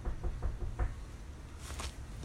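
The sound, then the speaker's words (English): Four quick, fairly loud knocks rap on a bedroom door as a mother knocks, in an uneven rhythm, followed by a brief hissing swish and quiet room noise. No one speaks. “I was just talking to my mother because she was knocking on my door.”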